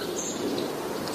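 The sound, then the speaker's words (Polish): A couple of thin, high-pitched calls from a long-tailed tit, faint, standing out briefly over a steady background hiss. “wydaje mi się, że mówimy tutaj o takim ptaszku, który nazywa się raniuszek”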